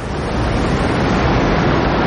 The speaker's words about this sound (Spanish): Grandes saltos de agua se precipitan a la garganta.